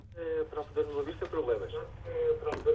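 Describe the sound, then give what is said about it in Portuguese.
A radio plays beside a caller in Covilhã, Portugal, during a radio phone-in, its broadcast voice and tonal sound coming through thin and boxy as if picked up over a phone line, steady and moderately loud throughout. “tem um rádio ligado junto a si, tem que o desligar para, para podermos ouvir sem problemas.”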